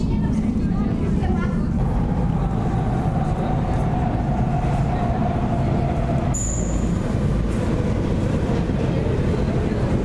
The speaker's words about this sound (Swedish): Ska vi se om det kommer någon tunnelbana. Ja, faktiskt.